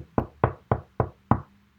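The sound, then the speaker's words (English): Five dull knocks on the underside of a wooden desk, made by a person sitting at it, struck at a steady, fairly quick pace with no talking around them. “you can flood uh, the sound of knocking on the door and so uh, for example i'm sitting at my desk right now i might go like this”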